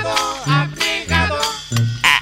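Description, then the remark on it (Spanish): A single squeaky toy horn honks about five times in quick succession, each blast nasal and buzzy with a slight pitch bend, the last one sharper and higher. No voices accompany it. “Y lo que suena es medio caquerri, es un cuic, en el mejor de los casos.”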